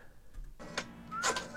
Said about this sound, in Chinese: 他在三下之后就切到华莱士的特写，然后我们听到他还在拨电话，你就知道说这这这这这不对啊！